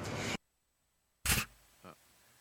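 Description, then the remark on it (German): A few sharp press camera shutter clicks in Berlin as an FDP deputy leader walks past the cameras, spaced apart with silent gaps between them, crisp, the last one softer. No one speaks. “Wie zur Bestätigung läuft der FDP-Vize erstmal an den Berliner Kameras vorbei.”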